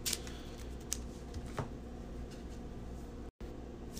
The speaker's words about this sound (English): I'm going to draw a card. I drew a steadfast. Shuffle everything back.